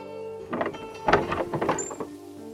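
A door creaks open with a drawn-out, squealing groan and a few dull knocks of wood partway through, with no one talking.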